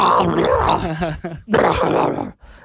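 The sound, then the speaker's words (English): A man's voice imitates agonized shouting and grunting in two loud, strained, raw bursts, with a short pause between them and a brief breathy tail at the end. “They wake up in the middle of the night, they um, hearing agonizing shouts and grunts.”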